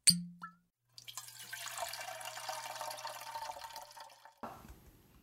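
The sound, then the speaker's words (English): A quick clink, then a steady stream of a drink pouring out for about three seconds, fairly loud, ending with a short splash or knock. No one speaks. “Let's pour one out.”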